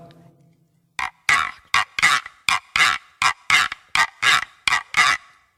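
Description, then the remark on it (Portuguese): A handmade instrument, made by the player himself, imitates a helmeted guineafowl's call: about eleven harsh, raspy, high-pitched squawks in a quick, steady rhythm, loud and alone after a second of near silence. “Agora eu vou mostrar os efeitos dos, dos instrumentos que eu mesmo fabrico. Eu vou imitar a galinha da Angola.”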